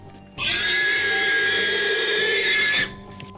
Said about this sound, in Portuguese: Ah, é, o Sonic nunca ouviu o som do porco também, né, velho?